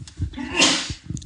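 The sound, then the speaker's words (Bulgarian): A man gives a single sharp sneeze that bursts out after a brief intake of breath, then trails off into a soft exhale, with no talking around it. “Не, той си киха, тук мляска в ефир, какво ли не, ние сме свикнали, както и нашите слушатели.”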